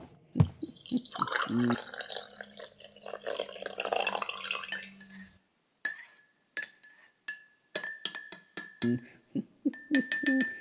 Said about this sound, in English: Let me pour you some tea.